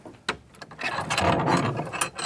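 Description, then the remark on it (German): A large key turns in the old door lock of a 15th-century house: a sharp metallic click, then a longer stretch of grinding, ratcheting mechanical scraping and rattling, moderately loud, with no voices. “Mit einem großen Schlüssel öffnet er die Tür des Hauses, das aus dem 15.”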